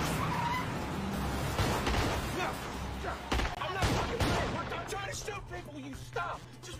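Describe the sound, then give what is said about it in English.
Scattered sharp gunshots crack at irregular intervals, some in quick clusters, over the steady low rumble of cars driving past. “Damn, I, I, like how those cars are just normally driving while just... while there's a bunch of gunshots and crap happening.”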